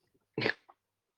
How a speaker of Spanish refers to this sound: Me agarro hipo, disculpen.